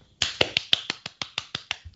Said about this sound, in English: So I, I think... wasn't clapping you. I was clapping to. I was clapping the listeners out there who all got it correct.